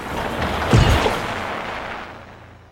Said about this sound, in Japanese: その戸の向こうの暗闇の中で「という声がしてそれからガサガサ鳴りました